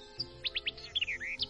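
bird, small bird chirping

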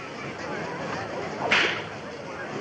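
tool, whip being cracked

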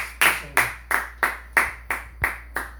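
crowd, audience clapping hands

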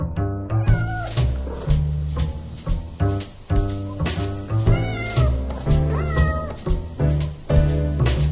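animal, cat meowing

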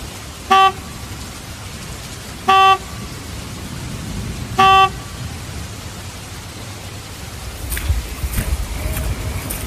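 vehicle, motorcycle horn honking

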